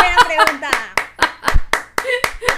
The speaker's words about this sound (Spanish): Un aplauso